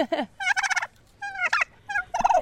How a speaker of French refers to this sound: C'est sympa ça les dindes Oui, c'est très sympa, sauf elle.